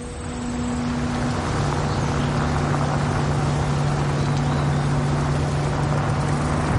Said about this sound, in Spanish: Un coche circula por un camino de arcilla roja rodeado de frondosa vegetación.